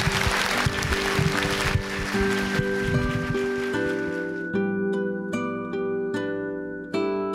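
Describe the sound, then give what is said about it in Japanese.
An audience claps steadily for several seconds for Toshio Suzuki, a dense crackling wash of applause, while a gentle music theme rises beneath it and takes over as the clapping fades. “鈴木敏夫さんでした大きな拍手をお願いいたします”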